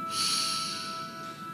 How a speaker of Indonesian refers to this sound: Tarik nafas panjang.